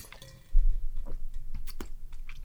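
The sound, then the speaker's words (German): Quiet mouth sounds of someone sipping water and swallowing, with small wet clicks and soft gulps over a couple of seconds and no talking. “ich trinke mir wieder noch einen Schluck Wasser.”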